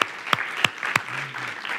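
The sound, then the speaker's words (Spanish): An audience applauds with a dense, steady patter of many hands, a few louder, sharper claps popping out near the start before the clapping carries on evenly. No one speaks. The applause is for the facilitators who opened their homes to host groups. “damos un aplauso por favor.”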